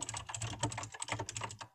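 Rapid, steady typing on a computer keyboard, a dense run of crisp key clicks with a low thump from the desk, and no one talking.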